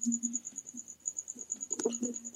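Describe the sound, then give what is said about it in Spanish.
Crickets chirp steadily in a continuous high, pulsing trill, fairly faint and unbroken, over a low background hum with a few soft thumps near the end. “Oigo unos grillos, güey.”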